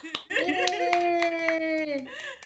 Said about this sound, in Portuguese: Eu quero ouvir uma salva de palmas.